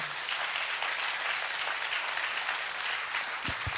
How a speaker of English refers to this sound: Can we clap and give God a praise?